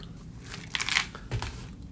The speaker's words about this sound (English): Sorry, I don't know if you guys hear the crunching, but tearing up these uh, honey roasted peanuts. Good protein source.